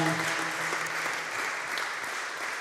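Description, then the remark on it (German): An audience gives sustained applause for God, a dense steady wash of clapping at even loudness throughout, with a faint low hum beneath and no talking. “Hey, lass uns doch mal Gott so mal einen fetten Applaus geben, dass er hier ist.”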